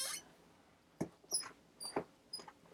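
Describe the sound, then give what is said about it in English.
A desk chair creaks and squeaks several times in short, irregular bursts, thin and high-pitched, fairly quiet, with no talking over it. “Also, if you hear this like squeaky noise,”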